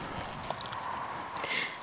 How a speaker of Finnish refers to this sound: Tä, tässä on nyt näitä meidän saappaiden no. ääniä, mutta voi kuvitella, että se on ollut aika paljon vaikuttavampia ääni kuin tämä